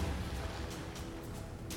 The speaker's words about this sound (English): in the mist, you can start to hear the sounds of cannon fire.